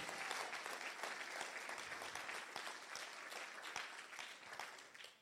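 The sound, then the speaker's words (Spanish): Sustained audience applause for Jesus at a morning church service, a dense wash of many hands clapping steadily and loudly for about five seconds, with no talking over it, tapering slightly at the end. “Alguien denle un aplauso fuerte a Jesús en esta mañana.”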